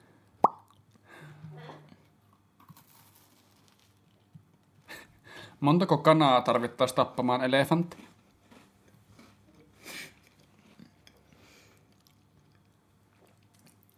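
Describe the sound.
Someone loudly eats a cookie, with a few sharp, scattered crunches and chewing clicks through a quiet stretch, while a voice asks a loud question midway.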